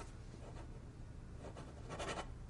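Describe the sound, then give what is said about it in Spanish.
A pen scratches across paper in a few quick, uneven strokes as someone signs a document authorizing the sale of an agency; the sound is quiet, with no voices. “Howard coge el papel y un bolígrafo.”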